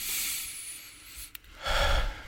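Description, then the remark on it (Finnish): A long, airy inhale, a brief pause with a small click, then a fuller, rushing exhale. Slow, deliberate deep breathing with no talking, demonstrating a way to ground and calm oneself. “niin tällä tavalla hengittää syvään, hengittää pari kertaa toteen, niin, niin kyse siitä sitten taas.”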